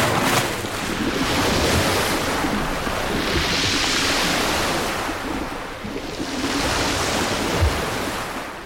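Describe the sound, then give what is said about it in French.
Loud, continuous ocean surf with waves surging and crashing in broad swells, a roaring wash of water and wind noise, with no voices. “Alors, elle décide d'aller sur la plage pour enfiler sa peau de phoque et plonger dans le tumulte des vagues.”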